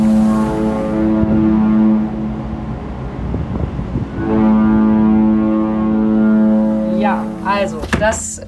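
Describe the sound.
The horn of a very large ship crossing the Atlantic sounds as the ship departs, in two long, deep, steady blasts, loud and droning with rich harmonics, separated by a brief gap of wind and clatter; a voice briefly talks near the end.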